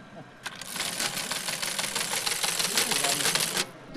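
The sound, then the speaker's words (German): Rapid, mechanical clattering of an original teleprinter, extended so it can send SMS messages, typing: a dense run of sharp strikes lasting about three seconds before stopping abruptly, fairly loud and steady with no talk over it. “Das ist ein ähm, Fernschreiber, der, ein Original-Fernschreiber.”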